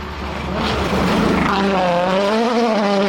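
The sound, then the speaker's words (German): The engine of an Audi Sport Quattro E2 rally car, with more than 600 hp and weighing 1000 kilograms, revs hard, its loud harmonic whine climbing and wavering as the throttle is worked, with no voices over it. “Arbeitsgerät ist ein Sport Quattro E2, ein Monster mit mehr als 600 PS bei 1000 Kilogramm Gewicht, kleineren Bremsen und riesigeren Flügeln.”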